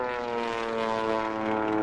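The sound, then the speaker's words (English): A propeller plane drones steadily overhead, its engine a continuous buzzing hum with a rich stack of tones, fairly loud and unbroken throughout, with no voices. “I wouldn't be surprised if he'd even hired that Wenger out plane we saw last season.”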